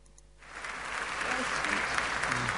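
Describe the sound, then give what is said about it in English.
A crowd at a Kenneth Copeland event breaks into applause after a brief quiet moment, the clapping swelling into a steady, dense roar of many hands that holds through the end, with a few faint voices mixed in. “I want you to listen to Kenneth Copeland's crowd and see where this is heading.”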